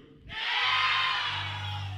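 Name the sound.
audience shouting together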